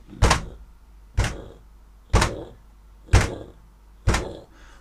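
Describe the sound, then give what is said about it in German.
Five heavy, booming footsteps land one after another at a slow, steady pace, each a deep thud with a short trailing decay, loud with no talking. “Und ihr hört schwere Schritte.”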